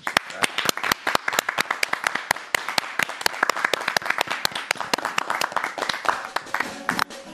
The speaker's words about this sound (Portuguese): Um beijo e uma salva de palmas para a Conde e Vlad.